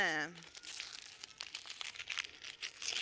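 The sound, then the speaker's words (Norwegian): Wrapping paper is torn off a blue gift and crinkled, a steady run of crackling rips and rustles lasting several seconds, with a brief voice sound at the very start. “Jeg rev opp så fort jeg kunne.”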